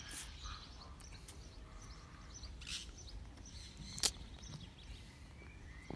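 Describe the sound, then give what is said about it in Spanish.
A parrot lets out a few brief, sharp squawks and chirps, spaced apart and fairly faint against a steady background hiss, with no one talking. “¿Cómo le, cómo le enseñas al perico a hacer eso, güey?”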